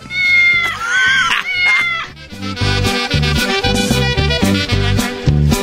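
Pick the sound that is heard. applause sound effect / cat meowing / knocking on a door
cat meowing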